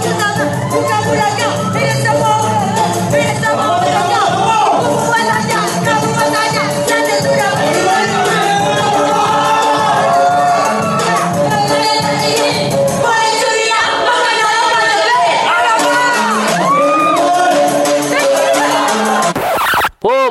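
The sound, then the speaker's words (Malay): A loud live rap performance by a bride in a gown on stage at her wedding reception, over a thumping beat, with a lively crowd cheering and clamoring around it; the beat drops out partway while the vocal and crowd noise carry on. “masa majlis tu dia rap dia rap di atas pentas depan orang ramai dengan baju gaun memang baik dengar ni”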